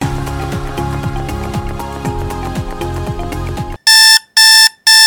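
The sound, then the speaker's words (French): Music plays for a few seconds, then an alarm clock rings loudly in three sharp, piercing electronic bursts separated by brief silences, waking a 23-year-old nurse at 5:30 a.m. “5h30, déjà l'heure du réveil pour Julie, infirmière de 23 ans.”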